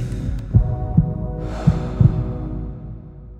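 A muffled heartbeat thumps steadily in low, soft pulses over a constant hum, with a faint breathy whoosh rising partway through; no one speaks.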